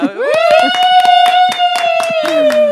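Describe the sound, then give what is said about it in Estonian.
Steady hand clapping for an Estonian record time, about a dozen sharp claps in an even rhythm, with a long sustained vocal cheer held over them that rises at the start and drops at the end. “aja üle ma arvan, et me võime nüüd apl aplodeerida”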